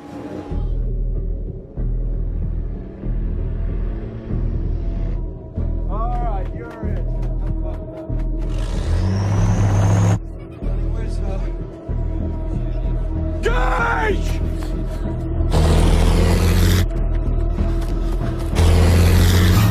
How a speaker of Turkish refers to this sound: sessizlik, huzur, e, anında bir anda yoğun bir gürültüyle beraber hızla geçen tırları görüyorsunuz.